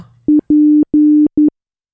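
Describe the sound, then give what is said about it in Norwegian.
Loud Morse code beeps in a steady telephone-like tone: a short beep, two long ones, then another short one, with brief gaps between them and silence after. “Det er jo korte og lange sekvenser her. Morse? Er det, kan det være morse?”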